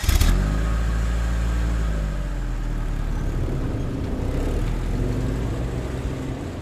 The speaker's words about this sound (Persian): دوممون رو گذاشتیم رو کولمون رو سوار ماشین شدیم و رفتیم